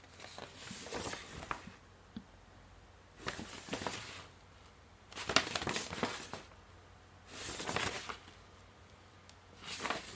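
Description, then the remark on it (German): Crisp paper crackling and rustling in five bursts about two seconds apart as a paper folding map is folded and unfolded, with quiet pauses in between and no voices. “Das ist ein Faltplan. Eine Faltkarte.”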